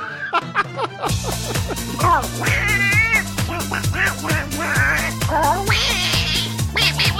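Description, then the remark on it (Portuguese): Repeated cat-like meowing wails, bending up and down in pitch, ride over a song with a steady stepping bass line and synths, loud throughout. “Parece um gato essa merda.”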